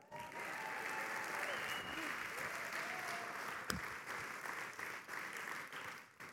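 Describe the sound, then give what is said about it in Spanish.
Sustained applause from a live audience, a steady dense wash of clapping that holds for several seconds before thinning out toward the end. “Yo a usted daría un buen aplauso porque usted está aquí.”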